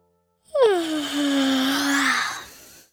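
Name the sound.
big yawn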